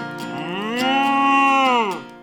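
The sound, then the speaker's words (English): A single long, loud cow moo from Marvin, the friendly, curious cow, rising at the start, holding steady for about two seconds, then dropping away at the end. “It's Marvin, the friendly, curious cow.”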